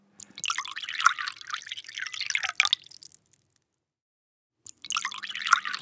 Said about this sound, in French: là dit-il en remplissant les deux verres, ils sont pour moi.